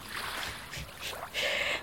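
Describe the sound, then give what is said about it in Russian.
Ocean waves wash ashore in a steady watery rush, with a few surges swelling and a louder splash near the end; no one speaks. “Ой, извини, пожалуйста, здесь это, залило океан. Волны.”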